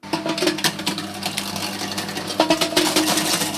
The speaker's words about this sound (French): Pour aider les boulangers à recycler leur pain invendu, une entreprise bordelaise explicite propose une machine qui broie le vieux pain pour le réutiliser comme de la farine.